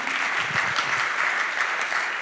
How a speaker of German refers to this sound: Übrigens, herzlich willkommen, wenn du das erste Mal hier bist. Du kriegst jetzt nochmal einen Applaus. Applaus